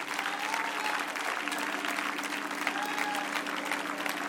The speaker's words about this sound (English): Now put your hands together and clap them unto the Lord. Oh, yes. Come on, clap them unto the Lord. I believe we can do just a little bit better than that.